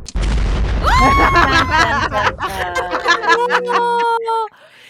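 A dramatic soap-opera sting: a deep booming hit opens into loud, swelling tonal chords that step through a few held notes before cutting off abruptly.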